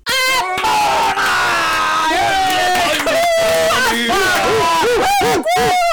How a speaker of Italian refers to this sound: Alla fine della danza ci fu un tumulto, uno scroscio di applausi e apprezzamenti, ululi ed urla.